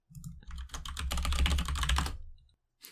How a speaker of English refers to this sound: I'm, I'm, gonna Google this up on my of course clicky, clicky keyboard.